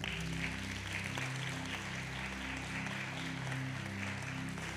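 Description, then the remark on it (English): An audience claps steadily for about five seconds in response to a call to pray that America will be saved, a dense, even wash of many hands at constant loudness, with a low sustained musical drone running underneath. “Clap your hands if you'll pray with me.”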